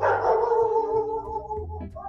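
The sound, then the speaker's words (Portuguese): A dog barks in a drawn-out, whining, almost howling tone lasting about two seconds, fairly loud and steady, with no one talking over it. “Até o cachorro concorda.”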